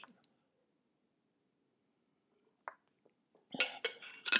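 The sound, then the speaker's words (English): Someone takes a sip of water from a glass: a long hush with a few soft, faint sounds, then a burst of clinks and knocks as the glass is handled and set down. No talking. “Okay, so sip of water and we'll just talk about this inshallah.”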